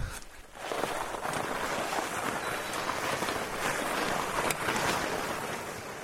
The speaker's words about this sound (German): Hier aber beißt sich ein dicker Vorderreifen in den plattgetretenen Schnee.